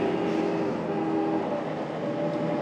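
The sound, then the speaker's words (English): Vehicle horns sound in steady, sustained tones over a loud, constant rumble of engine and road noise from a vehicle driving a rough mountain road through valleys beside a river, with no one speaking. “Um, plenty of plenty of beeping.”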